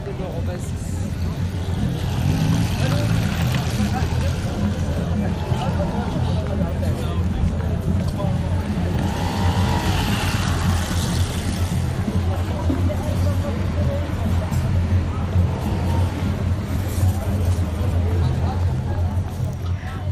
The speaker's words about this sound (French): Enfin, si on parvient à oublier le vrombissement incessant des scooters.